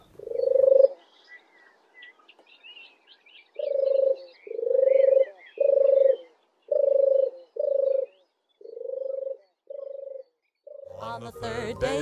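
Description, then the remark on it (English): A turtle dove's soft, low purring song repeats in a steady series of about ten rolling phrases, with faint twittering of other birds in the background and a brief burst of other sound at the end. “The turtle dove's song is a beautiful, relaxing, purring call and it's a lovely bird to have around the house singing from your Christmas tree at Christmas, if only.”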